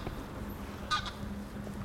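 greylag geese honking

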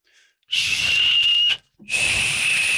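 person whistling

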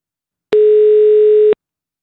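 telephone ringing tone

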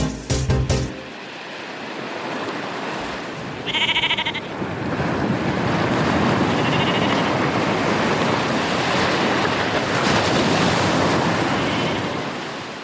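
ocean waves breaking

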